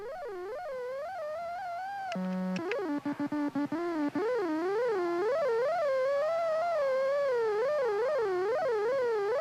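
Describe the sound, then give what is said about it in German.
A high, warbling electronic tone, an electronic rifle's aiming signal, sounds continuously, wavering up and down in pitch, broken early on by a steady beep and a quick series of sharp mechanical clicks of the rifle. “Also man hört dieses, dieses Fiepen und dann hört man immer das Klicken des Gewehrs.”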